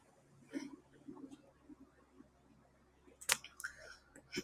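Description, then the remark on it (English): Quiet, sparse clicking of keys, a few soft taps spread out with one sharper, louder click near the end, against a faint low background hum. “I'm typing right now.”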